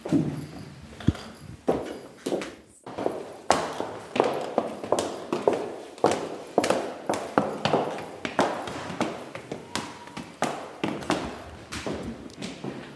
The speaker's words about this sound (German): Ja, da gehen wir in die zweite Etage, gehen wir aus dem Erdgeschoss nach oben in unserem wunderschönen Treppenhaus in die, in die zweite Etage und da gehen wir ins Sprachlabor.